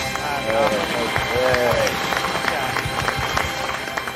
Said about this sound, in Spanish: De verdad, ¿eh? Un aplauso para ti.